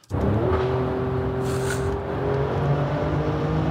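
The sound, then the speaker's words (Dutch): The engine of an Alfa Romeo Stelvio Quadrifoglio drones steadily while driving, a low sustained hum with harmonic tones holding a near-constant pitch, loud throughout with a slight dip and rise midway, no voices. “en je hoort een rijimpressie in de Alfa Romeo Stelvio Quadrifoglio.”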